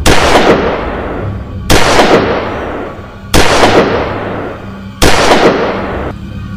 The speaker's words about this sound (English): I was awoken in the middle of the night by the sound of the door creaking open grabbed my gun and just sat up in bed, firing off towards the open door.